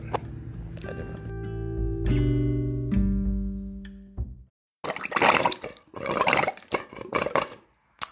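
Water pours with a steady hollow, ringing tone, breaks off, then comes back as choppy gurgling and sputtering bursts before stopping as the flow runs dry. Fairly loud, with no talking.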